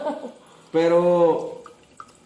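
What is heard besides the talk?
liquid poured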